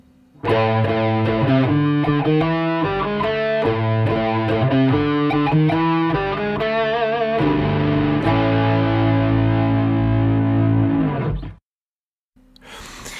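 A loud, heavily distorted musical jingle, used as a break between topics, plays with choppy, stuttering chords for about eleven seconds and ends in a sustained buzzing tone that cuts off abruptly into silence.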